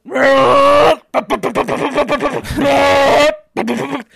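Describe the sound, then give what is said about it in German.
A voice mimics the loud noise inside a narrow, dark MRI scanner tube: a long droning buzz, a burst of rapid rhythmic knocking, another sustained drone, then a short final buzz, all strained. “Und diese Röhre ist sehr, sehr eng und dunkel und es ist fucking laut, weil die ganze Zeit kommt so”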